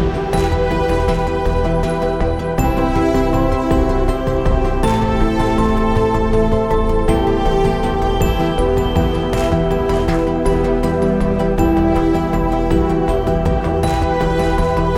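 Instrumental royalty-free electronic space ambient music made with synthesizers, electric pianos, pluck synths and soundscapes: layered pads and electric piano hold steady, rich chords, with periodic plucked accents, at an even, full loudness throughout and no voices.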